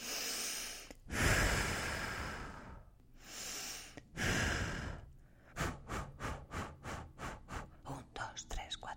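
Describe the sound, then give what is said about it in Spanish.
Two long, forceful breaths blown out, each lasting a couple of seconds, as rescue breaths given to a small child during resuscitation, followed by a steady run of short rhythmic puffs and soft whispery sounds. “Entre bocanada y presión, ella le dedicaba una letanía de sueños y esperanzas.”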